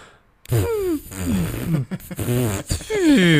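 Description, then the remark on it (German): A man makes buzzy, sputtering fart noises with his mouth instead of answering, a few wavering blasts run together over about three seconds with brief breaks between them. “da kam einfach nur so eine, so eine lauwarme Furzblase raus”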